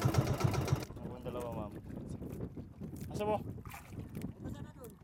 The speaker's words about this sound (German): Die Fahrt mit dem schmalen, hölzernen Beiboot dauert rund eine halbe Stunde bis zum Motherboat. Das Mutterschiff liegt in der Bucht von Massinlok vor Anker.